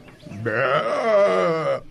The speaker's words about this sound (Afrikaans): skaap is briesend. Hy hou nie daarvan dat daar nie na hom geluister word nie.